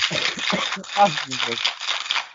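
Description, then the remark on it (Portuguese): Ice rattles loudly and continuously inside a cocktail shaker being vigorously shaken, a bright clattering that persists throughout while a person speaks briefly over it. “Pessoas estão loucas com gelo e tu andas aí a abanar gelo”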